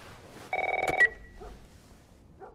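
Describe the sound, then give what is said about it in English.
A telephone rings once with a rapid, trilling electronic warble lasting about half a second, a panicked call to Sarah from her uncle Tommy, Joel's brother, then fades into quiet room noise with faint soft sounds afterward. “Next thing we know, Sarah's asleep, and she gets a panicked phone call from her uncle Tommy, Joel's brother.”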